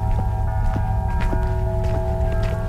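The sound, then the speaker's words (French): Steady footsteps walk at an even pace across hard, frozen ground on a morning walk out of a village at minus 20 degrees, each step a crisp crunch, over a constant low rumble and faint sustained tones in the background. “Ce matin, je quitte le village pour une petite promenade. La terre est gelée, dure comme le marbre.”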